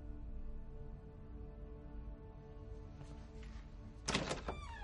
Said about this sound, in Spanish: abre la puerta.